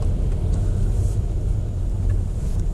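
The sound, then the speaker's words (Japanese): A car drives along a relatively rough, dirty road in the mountains, producing a continuous, loud low-pitched rumble. The heavy vibration rolls on steadily throughout, with no voices. “はい、今比較的汚い道を走りましたが、なんやろな、今のちょっと気持ち悪かったな。”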